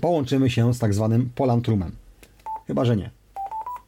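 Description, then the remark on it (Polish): Short electronic beeps of a radio room connection after a five-digit code is entered, each digit with its own tone: a single clear tone between bits of talk, then a quick run of rising tones at the end, fairly loud, with a man speaking before them. “Miał być dźwięk trójtonowy, ale że ktoś tu sobie akurat gada, no to był dźwięk dwutonowy, bo już poszła transmisja audio i tak to wygląda.”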